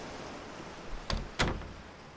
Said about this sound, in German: Schließlich erreichst du die massive Holztür des Leuchtturms. Die Tür ist nicht verschlossen und du trittst ein in eine Welt der Stille und Geborgenheit.